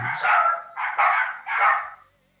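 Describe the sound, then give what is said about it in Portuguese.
Dogs Presunto and Tio barking, a quick run of three or four loud, yappy barks that stop abruptly, leaving quiet. No one talks over them. “É, vocês estão ouvindo aí o presunto e o tio”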